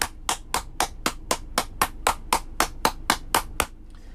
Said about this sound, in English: Um, hey, hang on. Let me. I'm going to applaud you